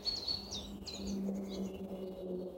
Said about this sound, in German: Hallo und herzlich willkommen aus dem Wald hier bei uns vor der Haustür. Ich bin ähm, eine Runde spazieren gegangen und auch ein, auch ein wenig gejoggt und es ist gerade hier so schön. Hört mal dieses Zwitschern.